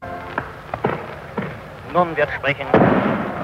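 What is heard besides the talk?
firecrackers exploding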